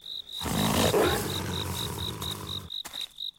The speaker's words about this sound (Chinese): 是狼群，原来如此。